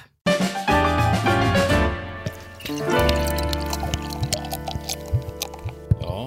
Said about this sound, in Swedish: här sitter vi och häller upp lite öl. Men det ser ju inte ni som lyssnar.